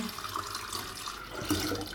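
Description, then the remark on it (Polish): Tap water runs steadily into a pot, for scalding tomatoes, a continuous hiss and splash with a faint hollow resonance that holds for the full two seconds. No one speaks. “Nastawię sobie tylko wodę na ich sparzenie”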